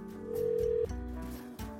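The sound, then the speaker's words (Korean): A steady electronic telephone ringback tone sounds for about half a second over a muffled background hum as a call to the caller's mother keeps ringing with no one picking up. “전화 좀 받으세요, 엄마 좀.”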